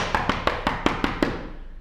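A run of seven quick, evenly spaced knocks on a wooden door, fairly crisp, with no voices, fading into quiet afterward; in a told story, a wolf knocks at the door of the wooden house.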